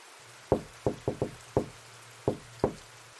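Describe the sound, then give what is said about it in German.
Seven sharp knocks on a closed, solid-wood bedroom door in an old house on a hot summer day, in an uneven rhythm, a quick cluster in the middle and two spaced raps at the end, with a steady low hum underneath and no voices. “doch wenige minuten später klopfte es abermals es klang ungefähr so”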